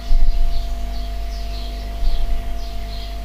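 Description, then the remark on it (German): Faint, high bird chirps from birds outside repeat every half second or so, soft, over a steady low electrical hum. No one speaks. “Vögel da draußen.”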